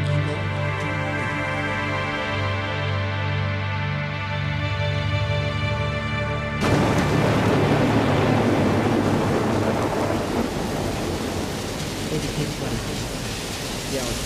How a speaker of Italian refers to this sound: e di temporale, pioggia, vento, turbinii d'acqua.